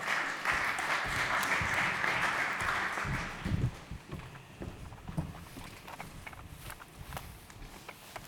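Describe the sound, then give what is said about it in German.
A dense burst of audience applause fills the first few seconds, then thins out into scattered claps and a few knocks and shuffles before fading. “Zwei, sehr gut. Applaus.”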